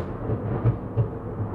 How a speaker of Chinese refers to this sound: 哦， 打下雨了，下雨了，下雨了， 哇，这个没有，我现在就在下雨，但是这个雷打的有够大。 哇，真的大呢。